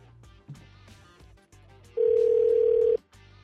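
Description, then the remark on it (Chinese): A telephone dial tone, heard as a radio call-in show host phones a caller, sounds as one steady, mid-pitched hum lasting about a second, loud over a soft rhythmic music bed that plays before and after it. “一个人手要拉很长去打电话，实在有点累。”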